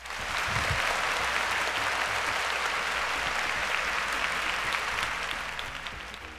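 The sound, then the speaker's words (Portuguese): Steady applause from a crowd, given as a salute to video game emulators: a dense wash of clapping that holds at a constant level for several seconds before easing off slightly at the end, with no voices. “mandar uma salva de aplausos para os nossos queridos emuladores.”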